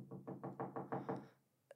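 A pencil taps rapidly on a table, about seven even knocks in a steady rhythm, moderately loud, followed after a short pause by one sharper, fainter click.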